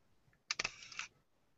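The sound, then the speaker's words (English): A digital rangefinder camera's shutter gives a crisp click followed immediately by a short mechanical whirring as the shutter recocks, made to sound like a film camera's advance, fairly loud, lasting about half a second in otherwise quiet surroundings. “What they're doing is they're recocking the shutter, but they have, I swear, they have gone to all that trouble to make it sound like a film camera”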